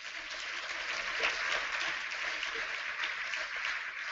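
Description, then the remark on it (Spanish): An audience claps for the Lord steadily for several seconds, a dense, even wash of many hands with no single beat standing out and no voices rising above it. “Bueno, denle un aplauso al Señor.”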